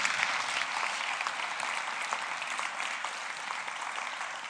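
Sustained applause from an audience, a dense, steady patter of many hands clapping at once, fairly loud and continuous throughout without any voices standing out.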